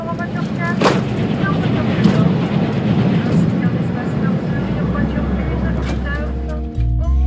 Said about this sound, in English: About every five minutes, another high speed train goes rocketing by mere inches, okay, maybe mere feet, in the opposite direction. When this happens, the sound goes from idyllic, like what you're listening to right now, to this.